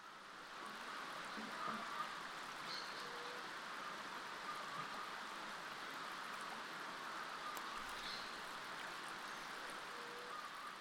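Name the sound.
flowing stream water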